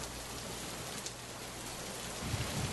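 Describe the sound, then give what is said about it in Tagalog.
Steady rain clatters on the corrugated tin roof of a waiting shed, a dense, continuous patter with low rumbling thuds swelling near the end; no voices. “Patuloy rin ang paglagatak ng yero ng sinisulungan nating waiting shed.”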